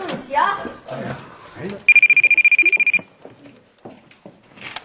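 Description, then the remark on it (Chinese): A telephone rings once: a loud, high-pitched electronic trill of rapid pulses lasting about a second, with people talking before and after it. “电话， 什么电话？ 电话这儿呢。”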